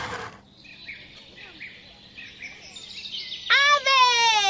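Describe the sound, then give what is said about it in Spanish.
Birds chirp and twitter steadily in a bright chorus, ending with a loud burst of rising, repeated whistles. “¡Aves! ¡Es correcto!”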